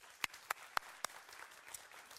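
A crowd gives another round of applause, a dense wash of clapping with a few sharper, louder claps standing out near the start, without any talking.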